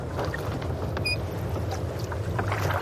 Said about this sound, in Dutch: Ah, ik ben er. De Noordpool. Ik vaar al een tijdje in de Arctische Oceaan.